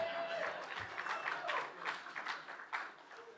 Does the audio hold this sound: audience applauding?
yes